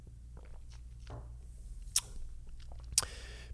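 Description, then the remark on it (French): Someone takes a small sip of water, with soft wet mouth and swallowing noises and two sharp clicks a second apart, over a low steady hum. “Prenez une petite gorgée d'eau.”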